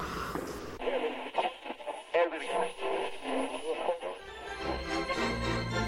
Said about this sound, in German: Okay, danke. Ich höre jetzt lieber Radio.